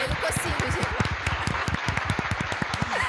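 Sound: small group applause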